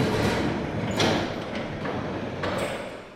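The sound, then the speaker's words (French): Observatory dome slit shutters, two halves parting left and right, grind open with a continuous mechanical rumble, punctuated by a couple of louder clunks and scraping bursts, steady throughout. “Là, l'ouverture du cimier.”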